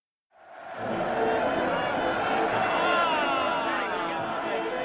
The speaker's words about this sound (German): Hip, hip, brüllt das Publikum im Berliner Sportpalast. 7000 Zuschauer feuern 13 Radrennfahrer an, die Tag und Nacht in die Pedale treten.